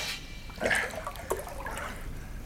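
Splashing as someone scoops up and sips seawater, a couple of brief wet bursts over a soft watery background, with no one speaking.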